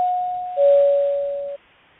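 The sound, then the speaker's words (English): A clear two-note chime from a timer marking two minutes left in a question session, a higher tone followed by a slightly lower one, ringing out and slowly fading over about a second and a half, with no voices. “Once again, I have the timer here set up, and uh, once we get to the two-minute mark, we're gonna hear this sound.”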